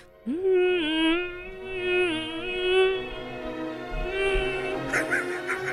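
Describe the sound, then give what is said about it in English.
Two violins trade phrases back and forth, their bowed notes sustained and wavering with vibrato, playing fairly loud with no talking over them. “But hold on, listen to this talking back and forth that these two violins do.”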